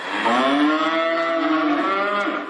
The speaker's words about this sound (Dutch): Want die koeien loeien van zichzelf al genoeg.